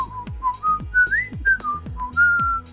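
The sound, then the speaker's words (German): A person whistles a bright, wandering melody, note after note sliding up and down, over a steady thumping beat that pulses about twice a second. “Sparsame Musiker pfeifen einfach.”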